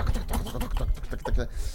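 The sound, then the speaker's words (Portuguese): Heavy, forceful typing on a keyboard: a quick run of hard, clacking key strikes in an uneven rhythm, fairly loud, with a faint murmur of voices underneath. “Olha o dedo pesado dele.”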